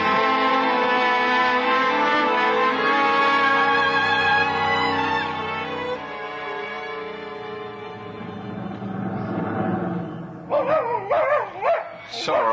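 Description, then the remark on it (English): Bates, a dog, barks and whines insistently on someone's return home, its long drawn-out cries giving way to a few sharp, rapid yaps near the end, loud and continuous throughout. “right, Bates, you can stop barking. It's no way to welcome me home.”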